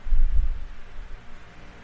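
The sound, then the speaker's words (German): An electric fan runs during a recording session, humming with a low steady drone and a soft airy rush over it, a little stronger at the start, then settling for the rest of the short stretch. “Mr. Ventilator, stell dich mal kurz vor.”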